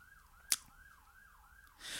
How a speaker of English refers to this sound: Cause see that siren that you can hear in the background.